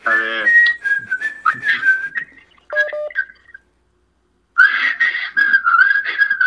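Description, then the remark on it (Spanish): A person whistles a song melody, a wavering tune in two phrases separated by a brief pause, with a few short beep-like tones in between. “Sí, claro, claro, esa de, eh, que dices, este, soy muy malo chiflando, pero intentaré.”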